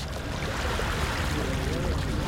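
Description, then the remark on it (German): A steady, dense wash of seaside ambience on the beach at Jarrach, a fishing village outside Dakar, Senegal, where brightly painted wooden boats line the shore: continuous rushing water and surf noise at an even level throughout, with a faint murmur of activity blended underneath. “In Jarrach, einem Fischerdorf außerhalb von Dakar, reihen sich bunt bemalte Holzboote am Strand.”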